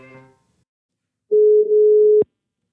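A brief snippet of a voice, a short pause, then a single steady telephone ringback tone, loud and clear for about a second before it cuts off abruptly with a click.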